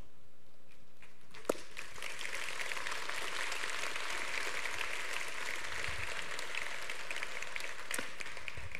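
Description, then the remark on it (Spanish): A lone woman claps steadily for several seconds, a continuous bright patter of hand claps with a sharper single clap at the start and another near the end. No one speaks. “Gracias a mi esposa por aplaudir en ese punto.”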